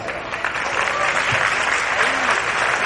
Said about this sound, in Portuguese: Eu queria pedir que você desse uma salva de palmas para os líderes que estão presentes.